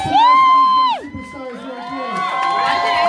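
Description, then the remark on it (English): A crowd cheers loudly for a young girl modelling. A sustained high whoop rises over the noise, drops off after about a second, and a steady mix of shouts and applause-like cheering carries on to the end. “That you just heard all those cheers for.”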